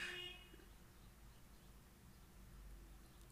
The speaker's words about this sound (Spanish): Tú rápido escuchaste ahorita una señal, un claxon. Y sabes rápidamente que fue un carro.